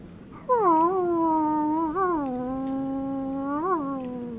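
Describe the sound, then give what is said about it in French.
A person imitates a wolf howl: one long, loud, sustained tone that slides down from a higher start, then holds steady for about four seconds with two brief upward wavers. “Vous voulez que je, re- je fasse un loup”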